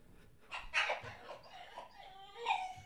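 Several short, high-pitched whines and yelps from two dogs being wrestled by their owner, coming in quick, uneven bursts, moderately loud.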